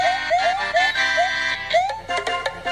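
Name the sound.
video game theme music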